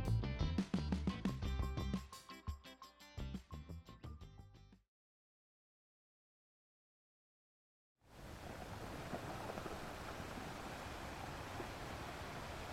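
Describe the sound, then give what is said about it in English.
A short music passage ends, a few seconds of silence follow, then a steady, loud rushing wash of waves breaking on a shore fills the rest, continuous with no voices. “The sound of waves crashing against the shore barely resonated as David lay face down, motionless.”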